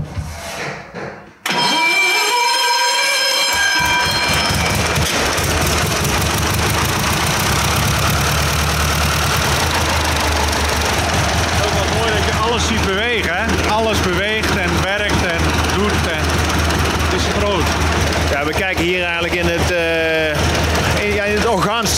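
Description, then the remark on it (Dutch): A large old American 9.5-litre four-cylinder car engine whirs briefly as it cranks, then catches and settles into a loud, deep, steady rumble, with people talking over it toward the end. “Hier is alles heel groot aan. 9,5 liter, 4 cilinder.”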